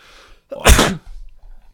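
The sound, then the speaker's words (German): A single loud sneeze, put down to hay fever, bursts out sharply and fades quickly, followed by faint low rustling and breathing; no one speaks. “Ich sage ja immer, ein Nieser kommt selten allein.”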